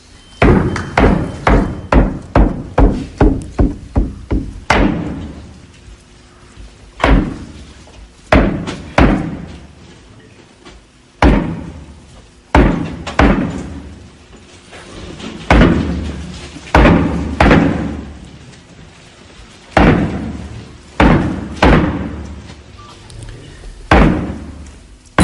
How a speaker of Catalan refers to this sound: cada cop de tambor aquests esquelets que van movent-se.